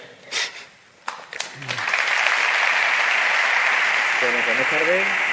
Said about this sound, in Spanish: Nueva ovación a las dos en punto de la tarde.